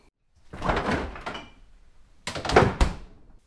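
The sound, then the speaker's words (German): A refrigerator door is pulled open with a muffled, rattling rush as groceries (Schmand, chicken breast fillet, sour cream, crème fraîche and butter) are put in the fridge, followed after a short pause by a second burst as it swings shut with a soft thud. No one speaks. “Also, die drei Sachen kommen in den Kühlschrank.”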